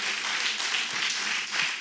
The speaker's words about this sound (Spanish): Yo sé que muchos de aquí son líderes y dense un aplauso por los líderes comprometidos que están apoyando y respaldando al pastor en este trabajo.